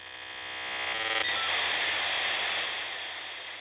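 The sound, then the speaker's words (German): A 56K dial-up modem handshake sending digital data at 56 kilobits per second over an analog phone line: a cluster of shrill, warbling tones gives way to a steady rushing hiss of static, thin and tinny, with no voices. “Langsamere Modems gab es bereits davor, aber 56K war der Augenblick, in dem private Personen das Internet richtig normal und ordentlich nutzen konnten.”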